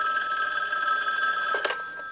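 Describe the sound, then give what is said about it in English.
A telephone rings with a steady, high electronic trill that holds for about two seconds, loud, with a brief warble near the end and no one speaking. “Now, if I may continue with another phone call.”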